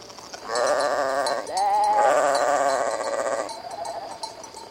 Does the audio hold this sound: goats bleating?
yes